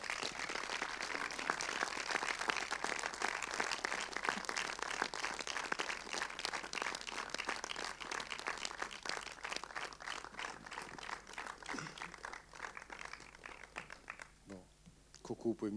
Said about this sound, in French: Euh, vous allez pouvoir de nouveau les applaudir